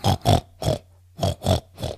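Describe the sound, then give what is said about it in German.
A person imitates pig contact grunts: six short, rhythmic grunting bursts in two groups of three with a brief pause between, moderately loud, with no other talking. “Ähm, und das sind nennt man diese Kontaktlaute. Das ist bei Schweinen dann sowas wie”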